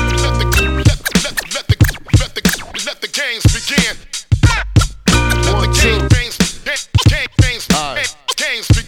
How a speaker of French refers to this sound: la pause musicale. Et là, ça passe. Bien sûr, pause musicale,